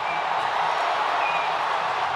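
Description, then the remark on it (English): A stadium crowd cheers after Christopher Morel's game-winning three-run home run for the Cubs in a Cubs–Sox game, a loud, steady roar of many voices that holds at the same level throughout, with no clear individual speech. “A game winning home run for Chris Morel. Can you believe it? Listen to this crowd.”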